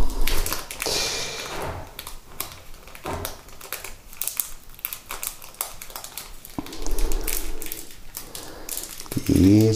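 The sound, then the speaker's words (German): Crinkly paper being peeled off a slice of cheese and fiddled with, a string of small irregular taps, rustles and crackles over about ten seconds, with a brief tonal note at the very end. “Ist immer so ein bisschen fummelig, hier das Papier aufzukriegen.”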